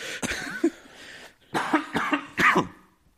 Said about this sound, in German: Entschuldigung, da muss ich wirklich husten. Kein Ding. Oh Gott. Lass alles raus.